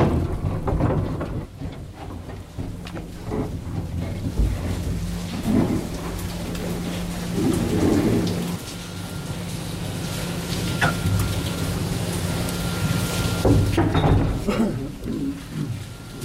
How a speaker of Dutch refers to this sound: Dus dan ga je de lift in. Het geluid van de lift die naar beneden zakken.